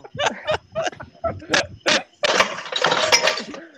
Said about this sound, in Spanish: Se cayó el microondas nuevo. Se cayeron las tablillas con todos los platos, la vajilla, la vajilla.